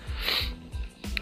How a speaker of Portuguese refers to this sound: É, desculpa, gente, vocês estão ouvindo eu tossir ou alguma coisa assim, mas é porque tá difícil.